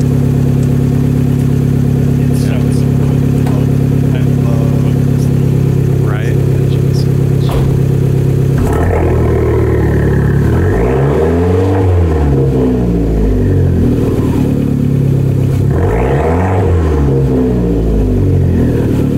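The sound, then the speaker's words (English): A car engine idles with a steady low rumble, then revs hard twice, the pitch sweeping up and falling back each time, loud. “Uh I sent you the little Revy Revs, but I can play it on the show.”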